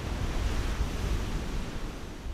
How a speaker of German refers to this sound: Das Rauschen des Meeres geht ins Rascheln des Waldes über, denn der beginnt direkt hinter den Stranddünen.